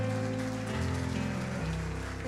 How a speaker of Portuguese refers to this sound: Dê um aplauso bem forte ao Senhor.